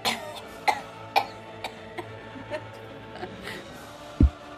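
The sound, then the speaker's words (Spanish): A person gives a series of short, dry coughs at irregular intervals, moderately loud, with a heavier, lower cough near the end and no speech. “yo gateo tosiendo hacia donde está George”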